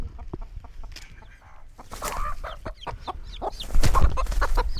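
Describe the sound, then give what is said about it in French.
A hen clucks in short, agitated bursts, the calls loud and rapid with scuffling in between, as it attacks a person who came too near its newly hatched baby chicks; the person briefly laughs. “Elle m'a attaqué la poule. Elle a pas kiffé que je m'approche trop.”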